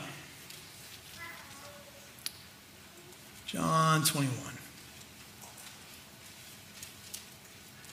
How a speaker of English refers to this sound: Can I just say how awesome it is to hear pages turning? Oh, I love it. Well done, guys. Bring your Bible.